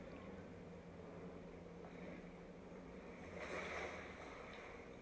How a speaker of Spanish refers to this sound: Y de pronto comienzas a escuchar el sonido del agua. Y caminas en esa dirección